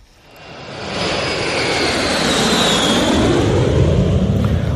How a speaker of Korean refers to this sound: 아, 비행기가 올라가네요. 네. 여객기인가요? 아니면 뭐, 탑건인가요?